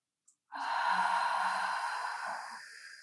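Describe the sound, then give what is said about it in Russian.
A long, steady breath pushed out through a slightly open mouth during a seated breathing exercise, a soft airy whoosh lasting over two seconds and slowly trailing off, fairly clear, with no talking. “Выдох через рот.”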